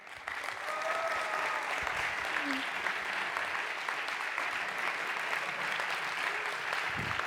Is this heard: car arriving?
no